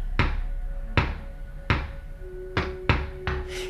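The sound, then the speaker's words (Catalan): Six heavy, hollow knocks are tapped in an SOS pattern. They land at uneven intervals, the first few spaced apart and the last three coming quicker together, each thud ringing briefly over a faint steady hum. “Però aquests cops són tan regulars que tenen un ritme que se't fica dins del cap i no te'l pots treure.”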